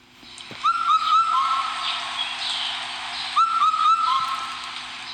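A large hawk-cuckoo calls twice, each a quick phrase of about four clear, whistled mid-pitched notes, set against a steady hiss of background noise with no one talking.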